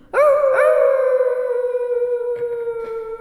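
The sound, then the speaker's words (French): Usdan, Tristan's dog, howls loudly in the keep of King Mark's castle in one long, sustained, slightly wavering cry with a rising start, accompanied by faint extra yips partway through. “Sire, depuis la fuite de Tristan, son chien Usdan hurle à la mort jour et nuit dans le donjon.”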